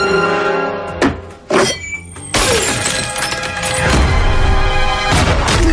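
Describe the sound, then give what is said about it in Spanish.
Two heavy punches thud in quick succession in a film fight scene, then glass shatters loudly, with crashing debris and tinkling shards filling the rest. No one speaks. “Y aquí ya es donde yo me pierdo, con los puñetazos, los golpes, los cristales.”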